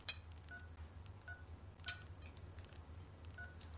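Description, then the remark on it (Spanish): A mobile phone plays short electronic ringtone beeps as its ringtones are tested, repeating several times at uneven intervals with faint clicks, fairly quiet over a steady low background hum. “¿Este se oye bien?”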